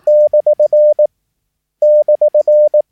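A clear, steady Morse code tone keys out the abbreviation DR (for 'dear') as one continuous run of dashes and dots, then pauses and repeats it once. The beeps are loud with no talking.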